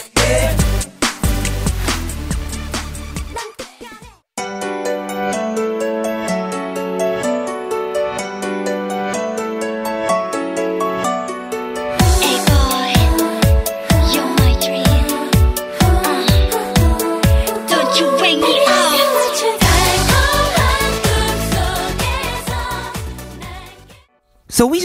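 An upbeat pop song with layered melodic instruments and vocals, opening with a short burst before the full arrangement enters, then a steady pounding beat kicks in midway, loud and continuous throughout, played on a radio show during a song break.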